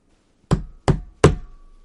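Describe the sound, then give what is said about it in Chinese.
A dog knocks on the very large gate of Demon Island (Onigashima): three loud, sharp knocks, evenly spaced with a short pause between each, every hit landing with a deep, resonant thud that lingers briefly. “狗上前敲了敲门”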